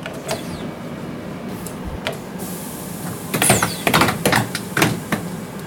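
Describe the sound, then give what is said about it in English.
Ten pneumatic clamps clunk down to seal the heavy door of a shielded chamber, a scattered series of sharp mechanical knocks and hissing bursts that bunch together near the end over a steady machine hum. “That's the sound of 10 pneumatic clamps coming down on this door.”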